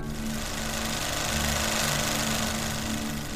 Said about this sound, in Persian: صدای نسبتا بلندی بود جا خوردم از اون صدا مرده گفت ببخشید آقا این صدای دستگاه دیگه داره حلقه نگاتیو رو میکشه آقا خیلی طول نمیکشه یه چهار پنج دقیقه دیگه آماده میشه